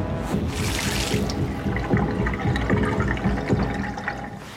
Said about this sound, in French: Je vous invite à aller dans la salle de bain et faire couler l'eau.